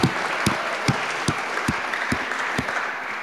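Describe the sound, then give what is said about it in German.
An audience at a poetry slam service in the Michaeliskirche applauds in a dense, steady wash of clapping, with louder sharp claps standing out at an even, rhythmic pace throughout. “Das ist dein Applaus.”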